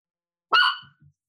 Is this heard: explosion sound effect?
no